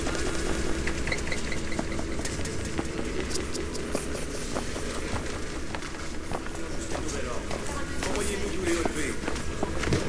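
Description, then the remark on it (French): Many footsteps crunch and tap steadily, overlapping, while indistinct voices murmur underneath throughout, with a low engine-like rumble in the background. “Des voix et des bruits de pas me font ouvrir les yeux.”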